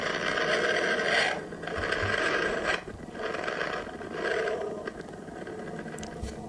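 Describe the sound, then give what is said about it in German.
A sonified space recording of the Sun: a continuous rough, rasping drone that swells and fades in slow, irregular surges, like a roar or grinding texture, with no voices present. “die Sonne ist halt ein bisschen, die ist leise. Es ist ein leiser Stern.”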